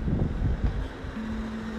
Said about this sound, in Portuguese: vocês não me devem estar a ouvir porque estão a passar carros